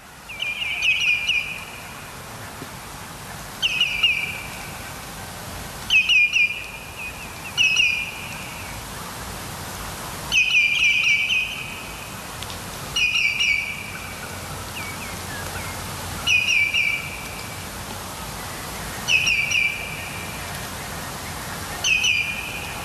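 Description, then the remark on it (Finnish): A common greenshank calls repeatedly in flight in full darkness after midnight, likely having taken off from the shores of Tulvalampi by a flood field at Lake Hyvelä and circling. Clear ringing whistled notes come in short bursts of two or three, about every two to three seconds, echoing in a hillside forest, over a soft steady background hiss. “Niin, äänessä on valkoviklo ja se lähti varmaan ihan täysin pimeässä tuolta Tulvalammen rannoilta lentoon ja kävi tässä kääntymässä.”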